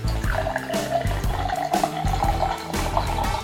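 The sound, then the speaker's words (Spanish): Blonde Ale beer from the Patito brewery of Mérida, Mexico, pours steadily into a glass for a few seconds, a continuous gurgling stream whose tone shifts slightly as the glass fills, with no one speaking. “Para conocer de cerveza es importante leer, pero lo principal es destapar, servir”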